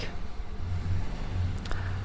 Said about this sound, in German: Genau, jetzt haben wir gerade Hintergrundgeräusche. Ich glaube, es ist gerade eine ein, äh, ein Motorrad, das da gerade startet.